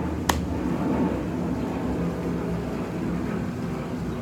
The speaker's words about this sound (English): There's a plane, so I'm just gonna wait for it to.